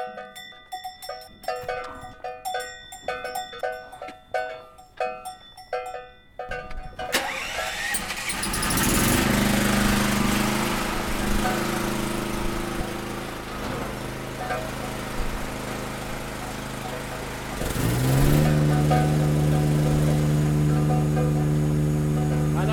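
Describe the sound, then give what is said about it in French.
A few seconds of metallic clinking give way to a motor starting up, then running loud and steady with a droning hum that shifts higher toward the end. “Ah, bien le moteur.”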